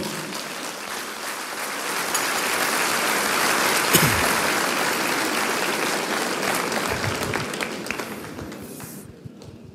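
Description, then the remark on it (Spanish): A crowd breaks into sustained applause, a dense wash of clapping that stays loud for several seconds with a few sharper claps and cheers, then fades out near the end. “Cuéntale un aplauso al Señor.”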